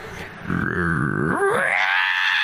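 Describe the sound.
A person vocally imitates the harsh electronic screech of a broken earbud playing music in their ear, starting as a low gritty growl and rising into a sustained, loud, high-pitched squeal that holds for over a second.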